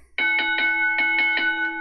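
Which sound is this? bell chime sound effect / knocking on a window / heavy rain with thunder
bell chime sound effect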